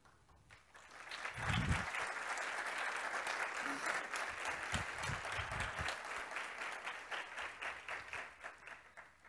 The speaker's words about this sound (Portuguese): Eu também acho que Ítalo merece ser aplaudido.